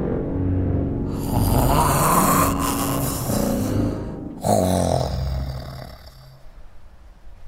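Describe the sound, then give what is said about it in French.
Two long, loud snores, rumbling and harsh: a drawn-out inhaling snore followed by a shorter one that fades. They sound like a voice imitating the heavy snoring of a bear curling up and noisily falling asleep. “Ours se love, se pelotonne et bruyamment s'endort.”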